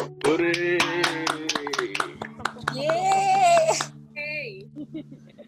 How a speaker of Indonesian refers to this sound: tepuk tangan saudara-saudara